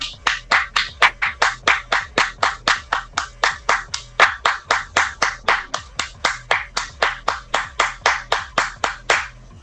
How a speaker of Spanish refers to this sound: ¡Aplausos, por favor!